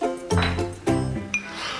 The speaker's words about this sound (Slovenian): dvigujem posodico za jajco, s tresočimi rokami odpiram to posodico